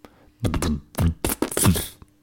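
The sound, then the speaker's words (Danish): A wet, sticky squelch of a girl's foot pressing into whipped cream in a bowl, heard as four or five soft, smeary bursts in quick succession, moderately loud with no talking. “Så gav det sådan en klam lyd.”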